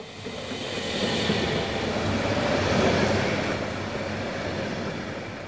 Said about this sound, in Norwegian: Ettermiddagstoget til Bergen har nettopp rullet ut fra Oslo S